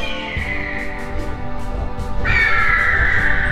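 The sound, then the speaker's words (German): Eagles screech loudly as they arrive, harsh drawn-out cries that overlap without pause, with a fresh, shriller call breaking in partway through over a rough rumbling background. “Die Adler! Die Adler kommen!”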